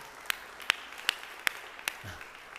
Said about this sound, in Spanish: Si vas a aplaudir, aplaude. Eso es medio posillo ahí. Sueña en grande, sueña con aplausos grandes.